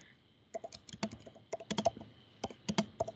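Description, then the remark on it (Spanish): Rapid, uneven clicking of computer keys as someone types a chat message, in short bursts with brief pauses between them and no one talking. “Se escucha que estoy tecleando.”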